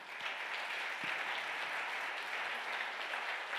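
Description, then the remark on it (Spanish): An audience claps steadily for several seconds, a dense, even wash of many hands with no pauses and no one speaking over it. “Dele un aplauso fuerte.”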